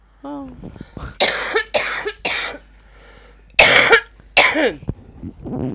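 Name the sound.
coughing and throat clearing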